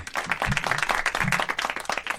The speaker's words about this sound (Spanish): Pero porque aplaude